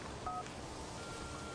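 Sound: telephone number being dialed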